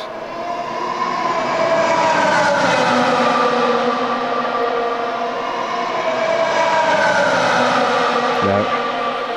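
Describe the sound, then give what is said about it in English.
The engine of Lewis's 2020 Mercedes-AMG F1 W11 race car screams loudly and continuously for several seconds, its high-pitched whine sliding up and down as it revs, with no voices. “And at the other extreme, Lewis's 2020 Mercedes AMG F1, the W11.”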